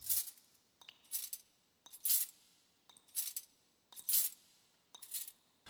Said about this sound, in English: They could hear the footsteps of an approaching soldier.